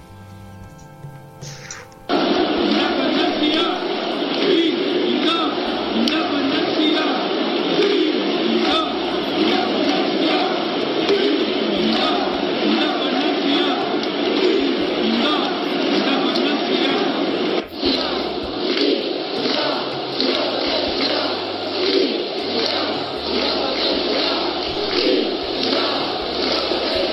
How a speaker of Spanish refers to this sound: Y también en cada minuto 17 con 14 que forma el año 1714, en el Camp Nou se escucha el grito de independencia que suena más o menos así.